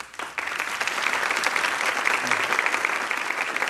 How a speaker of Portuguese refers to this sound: podem, podem aplaudir mesmo, porque é, exige coragem.